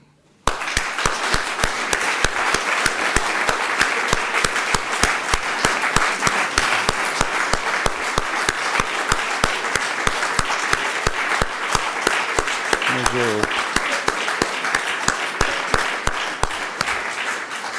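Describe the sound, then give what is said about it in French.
Sustained applause from an audience in tribute to a departing colleague, a dense, steady wash of many hands clapping that starts abruptly and holds loud and even for the whole stretch, with no voices standing out. “pour lui témoigner notre immense reconnaissance, je vous demande de lui réserver des applaudissements à la mesure de ses mérites.”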